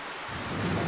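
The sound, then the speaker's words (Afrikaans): Heavy rain pours down in a dense, steady hiss, while a low rumble of thunder swells up beneath it toward the end of the brief moment. “En binnekort reën dit baie hard.”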